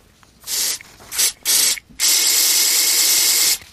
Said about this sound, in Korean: 스프레이 뿌리는 소리군요. 네, 일부에 나가는 노래 속에 이 스프레이 뿌리는 소리가 보물소리 숨겨져 있습니다.